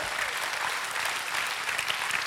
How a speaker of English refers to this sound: Can you get a hand clap for the Lord right there? Come on.